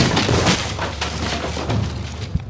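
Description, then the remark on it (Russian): A wooden door splinters and cracks apart in a loud burst of crunching debris, ending with a heavy thud as it falls, raising dust. “Дверь упала, поднимая пыль, и Людвиг, дернувшись назад, грохнулся на ковер.”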